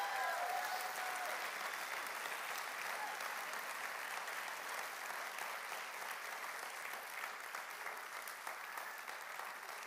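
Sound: audience applauding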